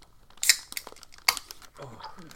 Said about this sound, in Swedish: Vi, vi nasslar lite här. Det är därför det, det, är därför det prasslar.